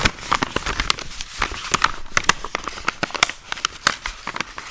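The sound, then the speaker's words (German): Paper rustles and crinkles in a dense run of sharp, irregular crackles and scrunches, fairly loud and steady throughout with no voices over it. “Ich rasche noch ein bisschen Papier, äh, während du noch überlegst.”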